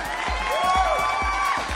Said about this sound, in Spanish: Y es su cumpleaños. Aplausos para Jazz.